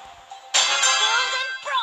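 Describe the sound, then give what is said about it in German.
A loud electronic phone ringtone chime rings out suddenly, holding a bright sustained tone for about a second before a second short ding follows. “Ist zu laut. Ich hoffe, ich bin mir nicht sicher, wenn ich den Klingelton leiser mache, ob man mich dann äh, den Ton leiser mache, ob man mich dann auch leiser hört oder Ja.”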